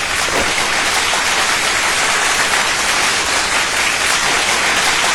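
Loud, sustained audience applause, a dense crackling wash of many hands clapping steadily throughout, with no talking over it.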